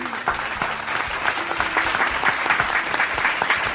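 Steady applause from a small group, dense overlapping claps forming a continuous bright patter at a fairly constant loudness for a few seconds, with no voices over it.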